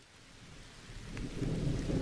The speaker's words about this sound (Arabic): بس دقيقة خلينا كمان نشغل صوت مطر اللي قلت لكم عليه احط شغل مقطع قصير منه